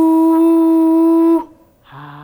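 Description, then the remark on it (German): A bright, shimmering synthetic tone sustains for over a second, cuts off into brief silence, then a second, lower tonal flourish begins, like a playful magic sound effect from a game. “und es gibt ein Zaubergeräusch.”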